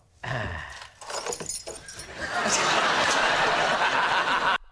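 Metallic jangling of a set of everyday keys taken out of a box and put on a desk, with sharp clinks as they hit the hard desk surface, followed by a few seconds of steady rattling and shuffling.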